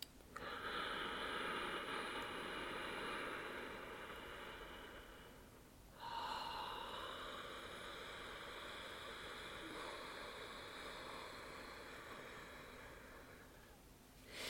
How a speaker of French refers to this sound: Donc pour la pratiquer, c'est comme si vous inspiriez et expiriez en essayant de faire de la buée sur une vitre. Du coup, ça va donner, je vous donne le son